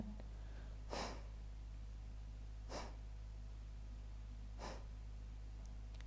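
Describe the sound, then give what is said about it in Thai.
Three short, sharp bursts of breath forced out through the nose, evenly spaced about two seconds apart, over a steady low hum, with no talking; short out-breaths (breath B) felt in the nasal cavity during a breathing meditation class. “จากนั้นขอให้ทุกท่านกลับมาที่ลมหายใจ b งสัมผัสลมหายใจ b งในโพรงจมูก ลมหายใจ b งเป็นลมหายใจออกสั้น”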